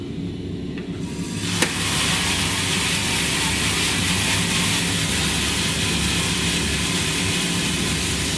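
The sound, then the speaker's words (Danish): A coffee roaster is started by pulling a handle that also starts a timer: a sharp click, then a loud, steady mechanical roar, the coffee beans tumbling and rattling continuously inside the drum. “Og så er der en lille rode her i, øh, i, i ovnen, hvor vi kan se bønderne rasle rundt derinde.”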